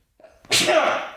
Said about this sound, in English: also like I had to sneeze, but I made it louder. Now it hurts my throat.